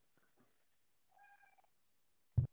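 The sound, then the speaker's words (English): A cat meows in the background, a drawn-out, slightly strained call, followed by a brief louder thump or knock near the end. No one speaks. “So you got a kitty there in the background too.”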